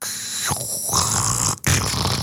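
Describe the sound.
A voice imitates a crackling, hissing phone line on a call from a caller from a Utrecht (030) number: a steady, rough, static-like rasp that runs for a couple of seconds, cutting out briefly near the end before resuming, fairly loud.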